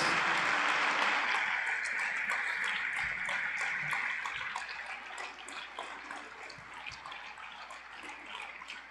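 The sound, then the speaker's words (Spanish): A church audience breaks into strong, dense applause for the King of Kings, a steady crackling roar of many hands clapping that stays full for a few seconds, then thins and softens toward the end. No one speaks. “denle un aplauso fuerte al Rey de Reyes.”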